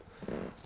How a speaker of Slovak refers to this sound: Op, to bola stolička.